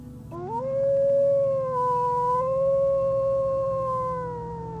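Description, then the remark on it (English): A single wolf with dark fur and a lighter underside howls in one long, sustained note that swoops up at the start and then holds steady, fairly loud, over a low droning rumble in the background. “From above my head came the wolf, its dark fur and lighter looking fur on its underside appeared.”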